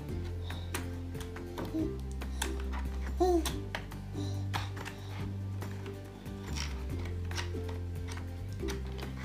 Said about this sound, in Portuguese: A é digitação aqui no teclado, não é?